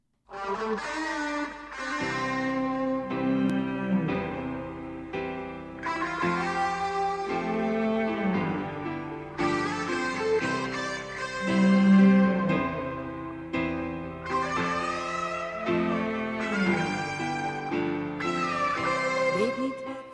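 A Dutch pop song with a female singer's sustained, melodic vocals over steady instrumental backing, playing continuously at moderate, even loudness throughout.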